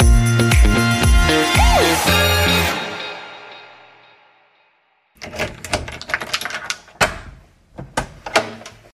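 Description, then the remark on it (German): The door of a holiday apartment in the Sauerland creaks and clunks open with a rattling handle as someone enters after the key handover, fades off, then after a pause a burst of sharp knocks, latch clicks and a firm closing thud, with no talking. “Wie ihr vielleicht am Geräusch erkennen konntet, die Schlüsselübergabe hat stattgefunden und ich bin gerade in die Wohnung gegangen.”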